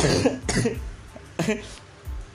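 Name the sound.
coughing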